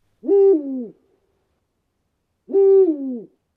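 Two separate owl hoots ring out, each a rich, tonal call that drops slightly in pitch, spaced about two seconds apart against otherwise silent surroundings.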